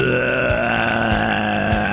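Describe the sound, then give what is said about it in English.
A voice imitates a zombie growl: one sustained, raspy, guttural groan held steadily for about two seconds, loud and unbroken, with no other talking. “that a growl or a. Or that's something making you sick? As a zombie, man.”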